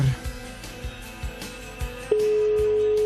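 A quick series of short phone keypad beeps, then a single steady telephone tone that holds on clearly to the end. No one speaks.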